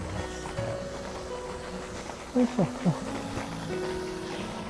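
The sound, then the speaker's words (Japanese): A car engine idles with a steady, low rumbling drone that holds throughout as the speaker passes the spot where it is idling, while a person says a few brief words over it. “ちょっと今車がアイドリングしてるとこ差し掛かってるんで、ちょっと音入ると思いま”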